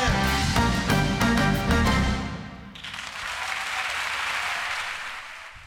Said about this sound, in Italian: Applausi che non arrivano da qui tecnicamente, eh, sarà per la prossima volta, ma sono automatici, congeniti e intrinseci quando si tratta di